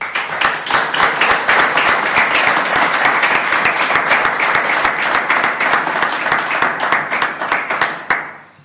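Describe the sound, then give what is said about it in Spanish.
An audience applauds steadily for about eight seconds to welcome a speaker before a talk in Gijón, dense overlapping claps at a constant level before the clapping thins and fades out abruptly at the end. “No digo más, simplemente le pasamos la palabra y démosle un aplauso si os parece.”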